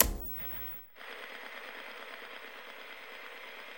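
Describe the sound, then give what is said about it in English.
A brief low rumble cuts off abruptly, then steady TV static hiss takes over, broad and even, with a faint rapid buzzing pulse underneath that continues to the end. No one speaks. “BeeBop was now standing in static, gray and black pixels bouncing off of him.”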